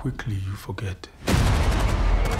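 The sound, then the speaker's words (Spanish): A voice speaks briefly, then a sudden, loud eruption of gunfire from a film's flashback to massacres in violent Sudan takes over, a dense, continuous burst of shots and blast noise that fills the rest of the moment. “el contraste del Sudán violento con el Londres de interés social es tremendísimo, no pasan de pronto, hay flashbacks de los disparos, las masacres.”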